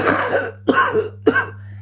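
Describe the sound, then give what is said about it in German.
An old man sitting on a bench at a settlement coughs heavily three times in a row, each harsh, rasping burst loud, with brief pauses between them and no talking. “An der Siedlung angekommen, sahen sie einen alten Mann der dort auf der Bank saß und stark hustete.”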